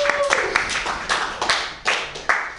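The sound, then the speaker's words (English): A short burst of applause: a few people clapping in a loose, uneven patter of sharp hand claps, fairly loud and overlapping for a couple of seconds. “Um, let's just get let's just get a round of applause going.”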